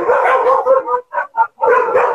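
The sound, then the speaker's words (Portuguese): A small female pet dog barks in a quick run of high, yappy barks, loud, with short gaps between a few bursts and no one talking over it. “Peraí minha, minha cachorrinha fofa.”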